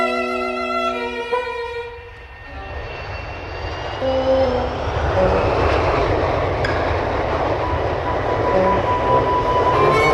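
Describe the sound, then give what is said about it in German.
A brief musical tone fades out and gives way to the loud, steady roar of an airplane passing overhead. The broad engine rumble swells and holds, dominant, with no voices. “ein Flugzeug muss drüber fliegen können und es darf nicht stören.”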